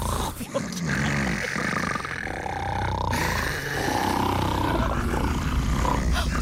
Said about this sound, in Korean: 언니 이거 지금 이 소리 형부 코 고는 소리 맞아? 아, 내가 하루 이틀 듣는 것도 아닌데 네 형부 코 고는 내가 모를까봐